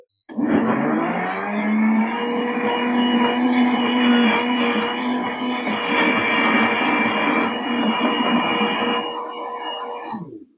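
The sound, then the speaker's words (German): A high-performance blender whirs loudly and steadily for about ten seconds, its motor pitch rising as it spins up, then cutting off abruptly at the end. “Erwähnen möchte ich, also ein Hochleistungsmixer macht das relativ schnell.”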